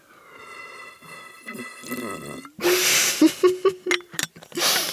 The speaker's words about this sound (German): Ich habe hier so eine riesengroße Glasflasche voll mit äh, Zystrosentee. OMG. Hm. Mhm. Kann man auch schlürfen, grundsätzlich.